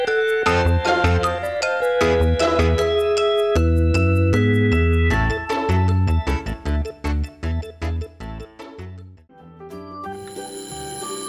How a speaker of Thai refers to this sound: อ๊ะ เสียงออดดังแล้ว อุ้ยต้องไปเข้าเรียนแล้วล่ะค่ะ